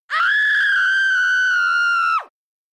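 sound effect, woman screaming with joy

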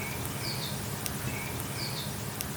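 bird, birds chirping outdoors

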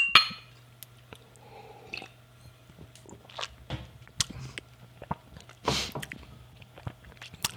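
household object, glasses clinking

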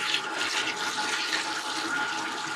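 household object, running tap water

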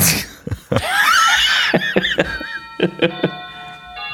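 signal or alarm, doorbell ringing

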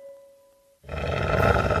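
animal, wolf growling

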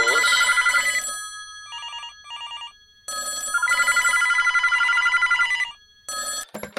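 signal or alarm, telephone ringing

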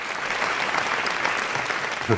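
crowd, applause

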